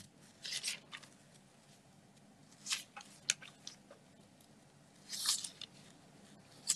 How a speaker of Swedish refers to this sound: Jag sitter med en helt ny bibel här så det tar lite tid att hitta. Eller att bläddra egentligen.